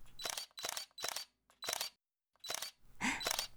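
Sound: camera shutter clicking repeatedly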